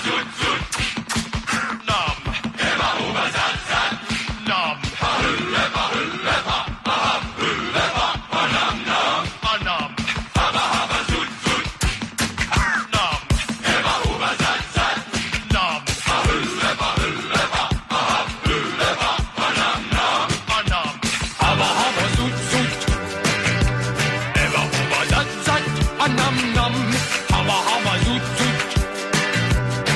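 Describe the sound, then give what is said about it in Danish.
Loud, dense music with a driving percussive beat plays throughout, shifting about two-thirds of the way in to a steadier section with sustained tonal notes. No one speaks. “Husk det, og så kan du høre lidt musik.”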